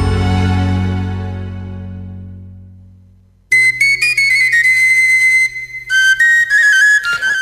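A Spanish folk song ends on a long held chord that slowly fades away, then a bright new melody with high whistling tones and a steady low drone abruptly begins.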